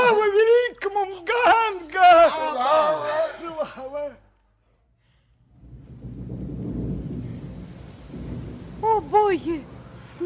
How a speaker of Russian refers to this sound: снова пошел дождь.